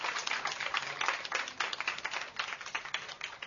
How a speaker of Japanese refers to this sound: 大きな拍手でどうぞ